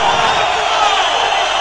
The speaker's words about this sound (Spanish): Falta de Alex Brown Clara además. ante la protesta del público.